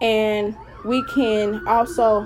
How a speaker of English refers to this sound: I am so sorry about the sirens. I don't know where the sirens want to come out of nowhere. It haven't been sirens mainly all week